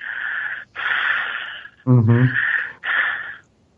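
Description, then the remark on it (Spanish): A person mimics heavy, wheezing breaths: several loud, raspy inhales and exhales in a row, with one brief voiced rasp in the middle and no words. “y nada más empecé a escuchar una respiración así de...”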